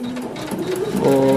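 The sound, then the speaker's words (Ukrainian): An embroidery machine stitches steadily, a rapid mechanical whirring hum with a fast repetitive clatter that grows slightly louder and more tonal toward the end. “всі думають, що машинна вишивка це пальцем тикну, і тобі вискочила готова сорочка, і ти за...”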